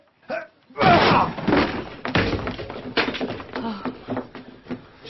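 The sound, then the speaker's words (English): Heavy, repeated thuds as two men bash against the solid door of Inglethorpe's room, several loud blows in an uneven rhythm, with muffled voices underneath. “The door looks pretty solid to me, but the two of us ought to be able to manage it.”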